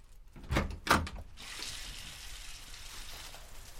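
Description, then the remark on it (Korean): The door of apartment 305 unlatches and swings open for a chicken delivery with a couple of sharp clunks, followed by a steady soft hiss of running water from someone washing. “문이 열렸고 임다정이 모습을 드러냈다.”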